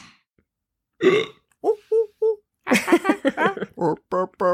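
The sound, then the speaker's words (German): A burp-like, monkey-style sound effect jingle: a low belching croak, then a few short grunts and a longer run of rapid, voiced burping calls, loud with no talking. “Ja, es klingt immer weniger wie Affen. ich wollte gerade sagen. Ja. Das klingt wieder nach Verdauungsstörung.”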